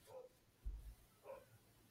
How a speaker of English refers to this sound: The dog's barking right now.